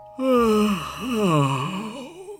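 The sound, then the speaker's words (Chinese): A voice imitates the big, drawn-out yawn of a very sleepy great god in a story: a sharp intake, then a long moaning exhale that swoops up and down in pitch before trailing off, lasting about two seconds. “可是啊，大神实在是太困了，他打了一个大哈欠。”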